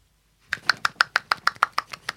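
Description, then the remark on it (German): A rapid, even series of about eleven sharp slaps, made by shaking one hand so the fingers smack into the palm in a one-handed clap, each crisp and bright with a quick decay, following a short silence. “Also man muss die Hand dabei, man kann sich ja vorstellen, wie es geht, man muss sie so schütteln, dass die Finger gegen die Handinnenfläche knallen.”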